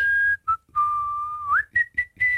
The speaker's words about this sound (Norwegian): Jeg plystrer?